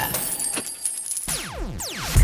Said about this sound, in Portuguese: É, falando de economia, né? Para isso nós temos uma vinheta aqui, ó.